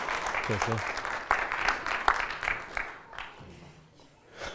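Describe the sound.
A church audience claps steadily for a few seconds, a dense, crackling patter that gradually thins and fades out, with a brief voice cutting in near the start.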